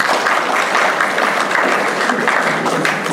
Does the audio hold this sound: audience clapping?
yes